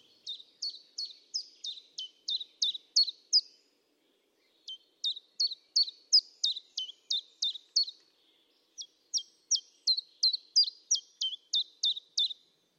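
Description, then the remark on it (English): A bird sings three bursts of rapid, high-pitched chirping notes, each a quick repeated series separated by short pauses, clear against a quiet background with no talking. “I love I love the fact that the birds also responded to the fact that, that there was less human noise, and and suddenly their territories got all the more uh, fiercely protected.”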